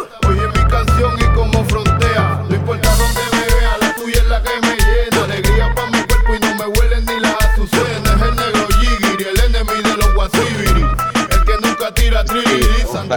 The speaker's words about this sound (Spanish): Vamos a escuchar la canción bien.